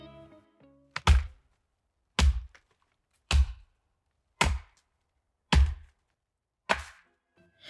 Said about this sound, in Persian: پس تصمیم گرفت درخت رو قطع کنه کار سختی بود درخت خیلی بزرگ و تنومند بود اون با تبرش ساعتها به تنه درخت زد